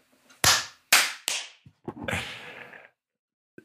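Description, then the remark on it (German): Three sharp, loud hand claps from the hosts, clapping together on a count of three, land about half a second apart, then a ragged, smeared burst of several overlapping claps follows, out of sync with one another. “Die Klatscher werden immer asynchroner oder äh, der Ping wird immer größer.”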